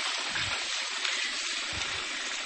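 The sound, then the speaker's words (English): A pan being washed in a kitchen under a steady stream of running water, with a constant hissing rush and occasional soft low thumps from handling, at a fairly even level throughout. “Right, let me just finish washing this pan.”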